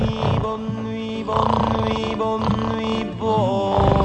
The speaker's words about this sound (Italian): Eh si dorme poco per- perché delle volte, insomma, per ovvi motivi di, con- di convivenza, c'è, c'è- c'è chi russa.